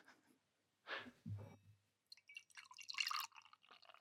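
Beer is poured into a glass: a couple of hollow glugs and splashes, then a fizzy, bubbling stream of liquid that carries on for a few seconds. No one speaks.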